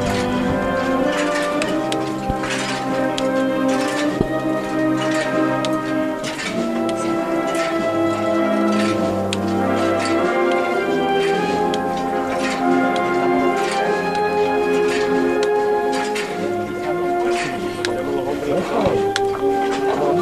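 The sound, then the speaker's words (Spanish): Rhythmic metallic clinking from the swaying fringed valances (bambalinas) of a palio canopy carrying the Virgin in a procession in the Plaza de Molviendo, steady, heard over a loud, continuous brass band march. “Y el sonido de las bambalinas.”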